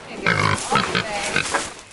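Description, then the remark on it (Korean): Several pigs that have just arrived at the Poplar animal sanctuary farm outside Maryland grunt and squeal, a busy overlapping chorus of short harmonic snorts and squeals running through the whole two seconds with no one speaking. “메릴랜드주 외곽의 포플러 동물 보호 농장에 돼지 여러 마리가 막 도착했습니다.”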